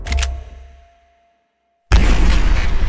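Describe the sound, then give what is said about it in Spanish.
A single loud, sharp gunshot from an Intratec submachine gun, fired through a closed, unarmored car window with an expanding lead-tipped bullet, opens with a deep booming tail that fades into about a second of silence. Then a harsh, roaring wall of noise bursts in abruptly and continues. “Se escucha el sonido del disparo. Seco, estridente.”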